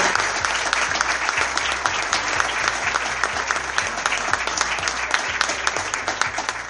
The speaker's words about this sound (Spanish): Así que un aplauso para la empresa 25 de mayo.